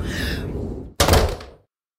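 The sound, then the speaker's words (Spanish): A rushing, breathy whoosh gives way to a single loud slam of a house door that booms and then fades quickly into silence. “El invierno contestó con un resoplido y se marchó dando un portazo.”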